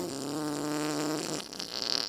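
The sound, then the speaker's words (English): A long, buzzy fart sound effect for a kids' story called The Farting Girl rasps loudly for over a second, then trails off into a short, breathy sputter. Prominent, with no voices. “It's called The Farting Girl.”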